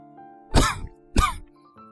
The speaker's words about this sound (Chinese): 我站在咖啡店的拐角处，抽完了一整包烟，尼古丁的苦味充斥着整个口腔，让我忍不住的咳嗽。